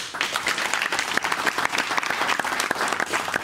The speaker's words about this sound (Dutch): Geef hem toch maar een applaus